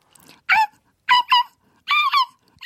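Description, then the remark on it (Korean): A person imitates a baby puppy as a sound-imitation quiz entry on a KBS show, with a string of short, high-pitched yips and whimpers, four quick bursts spaced unevenly, fairly loud with no other talking. “어, 강아지인데. 강아지. 좀 큰 강아지. 어. 애기 강아지.”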